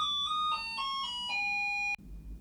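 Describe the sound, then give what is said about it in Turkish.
An electronic doorbell in Turkey plays a short melodic chime of about six descending and rising tones, loud, ending abruptly after two seconds with faint room noise afterward. “Evet onun çok tesiri altında değil bu rapperleri oluşturanlar demeye çalışırken kapı çaldı. Bu kapı çalma sesini de oradan kesmedim.”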